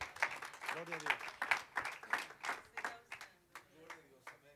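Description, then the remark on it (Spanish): A church audience applauds a church member with a burst of brisk, irregular clapping for several seconds, while voices call out over it before the claps thin and fade. “Un aplauso a mi hermano.”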